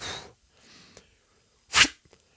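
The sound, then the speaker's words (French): A voice imitates an arrow striking right in the heart: a breathy hiss, a short pause with a faint click, then a sharp, loud, noisy burst, with no talking. “Euh, c'était le bruit de la flèche.”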